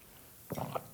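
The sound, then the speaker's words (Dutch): A quick sip of a drink taken to soothe a tickly cough during a flu: a short wet slurp followed by a soft swallow after a brief moment of quiet, with no talking. “Dus ik neem even een slokje voor de hoestkriebel.”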